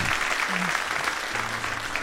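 A steady burst of applause from an audience, dense and even clapping that fills the whole two seconds at a moderate level, with a faint low hum underneath.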